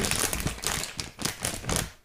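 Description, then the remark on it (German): Paper crinkles and rustles as a Yps-Heft magazine is handled, a series of soft, irregular crackling bursts with brief pauses between them, no voices present. “Ich habe es hier liegen. Man hört es knirschen.”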